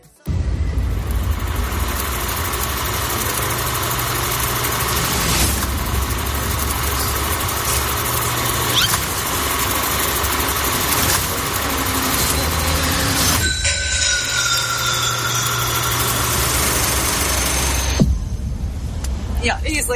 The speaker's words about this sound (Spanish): Se llama Mickey Mouse Trap y lo que escuchamos es el trailer de la película